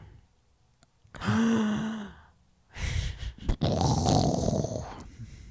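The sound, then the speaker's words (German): A person vocally imitates an ocean wave: a rising breathy whoosh with a tonal hum, a brief pause, then a longer, louder hissing rush that swells and fades, alone. “Das ist das, Geräusch einer Welle.”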